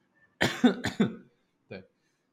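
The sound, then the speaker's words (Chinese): A quick run of about four harsh, raspy coughs, then a short pause and one more lone cough, a lingering cough left over as the only remaining symptom of a cold-like illness. No one speaks. “就，我看现在现在现在的症状就是剩下咳嗽而已啊。”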